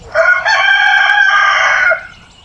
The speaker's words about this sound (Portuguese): Olha qualquer um, um galo cantando, você ouviu? Sabe o que é isto? Ele está dizendo que terminou o Jardinagem Simples assim de hoje.